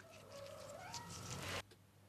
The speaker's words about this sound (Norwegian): Kan jeg bare kommentere, kan, er det lov å kommentere katten din sine lyder?